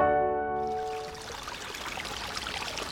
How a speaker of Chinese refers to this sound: 乖乖，这是小溪。小河川、小河流的水流声音，乖乖，你知道吗？